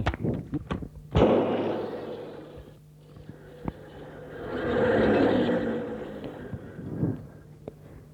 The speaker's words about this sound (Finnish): sivumoottoria kokeiltaessa tapahtui räjähdys.